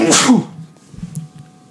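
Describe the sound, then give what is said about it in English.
A single sharp sneeze bursts out at the start, loud and breathy, followed by quiet background noise and faint rustling. “Bless you.”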